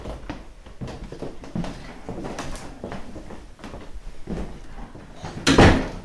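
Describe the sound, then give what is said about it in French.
The door of a utility room in a house kitchen is pushed shut with a solid thump near the end, preceded by several softer knocks and rattles of handling, with no talking. “Je ferme la porte de la pièce des utilités.”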